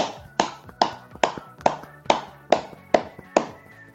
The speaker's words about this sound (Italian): quindi veramente un applauso, un applauso a tutti voi.